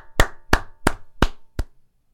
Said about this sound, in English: just a sad clap.